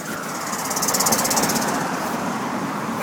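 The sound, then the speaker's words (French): A car engine runs steadily, a rough, rattling idle with a faint rhythmic knock that holds at an even, fairly loud level for a few seconds, with no talking. “Mon tour de te mettre dans ma, ma voiture.”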